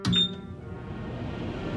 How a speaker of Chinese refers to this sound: 哎呦， 那是微波炉。 哦，微波炉真是方便啊！加热食物只要三十秒钟。